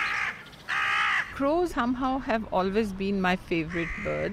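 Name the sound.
crows cawing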